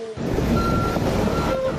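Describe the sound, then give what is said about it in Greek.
A grader's heavy diesel engine rumbles steadily while high, piercing reversing beeps sound in short repeated tones over the machinery noise; a single operator is working the grader in floodwater, trying to change the course of the water. “Ευελπιστούμε εδώ στον άνθρωπο ένα και μοναδικό που είναι εδώ με τον Κρέιντερ και προσπαθεί τις τελευταίες ώρες να κάνει ο άνθρωπος ό,τι μπορεί για να αλλάξει την πορεία του νερού.”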